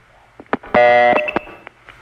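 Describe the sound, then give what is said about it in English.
A telephone trunk supervision handshake from Canton, on a trunk from Youngstown, Ohio: a loud, buzzy electronic tone lasting under half a second, bracketed by sharp clicks and a few brief chirps on the line, with no voices. “And that's the handshake from Canton.”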